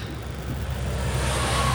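Steady road traffic rumble with deep engine drone and a broad wash of vehicle noise, continuous and fairly loud, from slow-moving cars in a traffic jam on the Panamericana highway.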